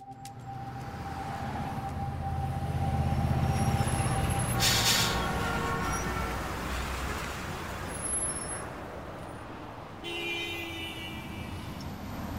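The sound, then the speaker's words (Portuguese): Steady street traffic in downtown Rio de Janeiro: a continuous low rumble of cars and buses, a sharp burst of air-brake hiss midway, a thin engine whine, and brief tonal toots near the end. No one speaks. “Nossa, quanto tempo que eu não passo aqui pelo centro do Rio de Janeiro.”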